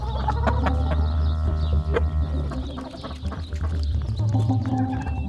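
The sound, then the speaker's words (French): A rooster crows loudly in a henhouse over a busy background of hens clucking, with short overlapping calls continuing steadily throughout and no talking. “Le coq, mécontent qu'Assani dérange ses poules, poussa un grand cocorico et poursuivait Assani dans le poulailler.”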